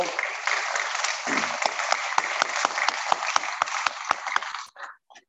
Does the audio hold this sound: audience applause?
yes